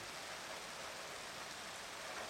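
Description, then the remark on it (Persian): Fine, light drizzle falls steadily in an alley, a soft continuous hiss of tiny raindrops with no distinct individual hits, heard alone without any voices. “نگاهی به کوچه میکنی بارون میاد خیلی وقته جان از اون بارون ریز ریزاست که خیلی دوست دارم”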